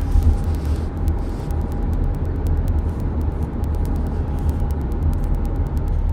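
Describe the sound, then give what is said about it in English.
Heavy rush hour traffic fills the scene with a steady, dense low rumble of engines and tires, holding loud and continuous throughout, with a faint sustained whine and scattered ticking above the drone. “And, yep, rush hour traffic.”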